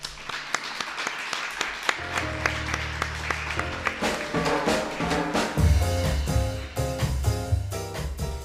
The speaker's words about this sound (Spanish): Gracias por invitarnos a ponerle el broche a las jornadas de redes por el clima y gracias a todas las personas que nos acompañáis en esta edición especial de Tránsito Podcast. Un aplauso para todas vosotras.